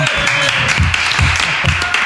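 A studio audience applauds steadily for a featured artist, a dense, loud wash of many hands clapping throughout, while a man's voice talks briefly underneath the noise.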